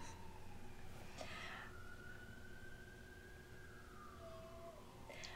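An emergency vehicle siren wails, one long sweeping tone that slowly falls in pitch as it passes, over a steady rumble of traffic noise with no one speaking.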